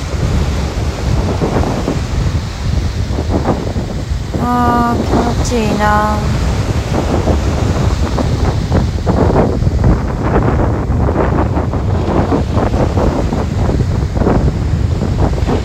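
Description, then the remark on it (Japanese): Loud surf of ocean waves on Miyako Island (Miyakojima) rolls and crashes onto a beach in a steady roar, with wind buffeting the microphone. A person briefly speaks partway through. “宮古島の波の音”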